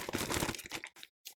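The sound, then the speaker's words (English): Newspaper pages rustle and crinkle in a dense, crackly burst that lasts most of a second, followed by a couple of short, separate crinkles after a brief silence. No voices are heard. “My apologies for the newspaper noise.”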